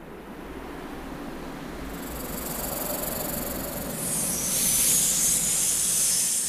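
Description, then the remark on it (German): A steady, airy hiss heard in the sandy desert in the middle of the night swells gradually, growing brighter and louder midway and holding strong to the end, with no voices present. “Überall bloß Sand, aber dann hörte er ein Zischen.”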